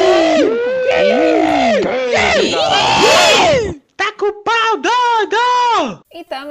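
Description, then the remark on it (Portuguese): A crowd loudly booing and yelling, many voices overlapping in rising and falling hoots, then breaking into a run of short, rhythmic shouted bursts before fading out. “Solta a vaia, menino!”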